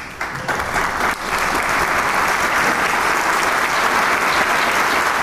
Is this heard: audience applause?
yes